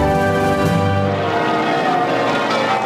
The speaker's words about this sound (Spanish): Cinco meses después, las campanas de la Catedral de San Pablo en el centro de Londres repicaron a Buda.